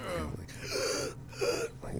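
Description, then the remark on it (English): A voice imitates an old man breathing heavily after being kicked in the chest and collapsing forward: two or three loud, strained, ragged gasps drawn in close succession, each one rasping and breathy. “And he just collapses forward and starts Whoa. breathing heavy.”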